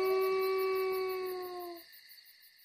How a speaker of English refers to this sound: The wolf wanted Buck to follow him, but Buck turned and slowly went back. The wolf followed him for a while. Then he sat down and howled. It was a sad howl.